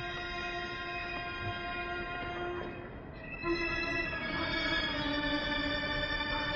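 An orchestra imitates buzzing flies, Janáček's famous fly-buzzing from his opera The Cunning Little Vixen (Příhody lišky Bystroušky). A dense, sustained drone of high, whirring tones holds steady, dips briefly midway, then swells back a little louder, with no one speaking.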